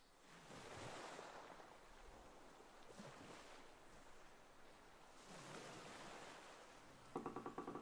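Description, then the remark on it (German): Waves roll onto the shore in slow, repeating surges, each swell building into a broad hissing wash before receding. A brief rhythmic creak-like sound starts right at the end; no voices. “Das Rauschen der Wellen, die ans Ufer rollen, begleitet dich in diesem Augenblick der Entdeckung.”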